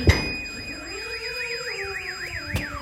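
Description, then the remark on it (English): A car alarm, set off by an explosion, wails with a rapid, warbling up-and-down tone, with a sharp thud at the start and another bang near the end. “and there is the car, which is alarm started because of the explosion.”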